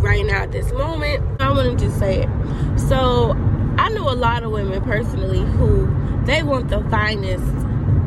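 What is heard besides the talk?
car interior road noise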